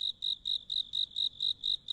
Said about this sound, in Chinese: 一只知了不知道趴在哪棵树上，正扯嗓子撕心裂肺的嚎着，声音刺耳的让人有些心烦